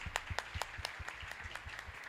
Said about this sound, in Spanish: les pido por favor que lo aplaudan porque realmente es,